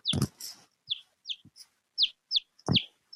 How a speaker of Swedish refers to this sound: Nej, men du har en liten kyckling! har du en kyckling? Jag tyckte att det, det kvittrade lite plötsligt. Åh oh, herregud! är det din kyckling som kan översätta alla språk? Ja! Men gud, och du har den på axeln.